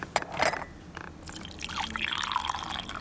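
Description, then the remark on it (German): Tea is poured into a cup in a large, bright old-building apartment in Berlin near the Kurfürstendamm, a continuous splashing stream that rises in pitch as the cup fills, with a brief clink near the start and no talking. “Hertha Müller gießt Tee ein und stellt eine Schale mit Marzipankartoffeln in Reichweite des Besuchers”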